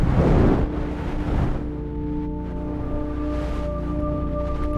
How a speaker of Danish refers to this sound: Lyden er en, en voldsom vind, som hvis man er i stormvær, ikke? Og, og mærker den her susen for ørerne og det hele blaffer op.